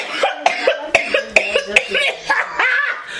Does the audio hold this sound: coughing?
yes